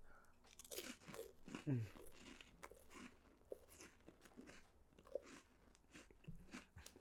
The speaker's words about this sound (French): Genre un petit brie euh, avec, un craquelin aux légumes. Attends, on va manger ça.